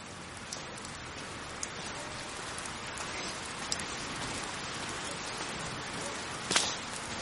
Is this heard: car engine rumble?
no